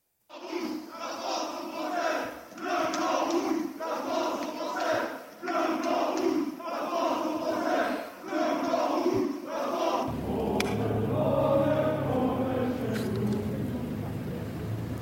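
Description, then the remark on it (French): A large crowd of far-right activists at a street rally in Rennes chants slogans in a steady rhythmic cadence, voices rising together in repeated bursts, then breaks into a louder wash of shouting and cheering with a low rumble beneath. “Je voudrais qu'on écoute ce qui était euh, entonné et crié dans ces rues.”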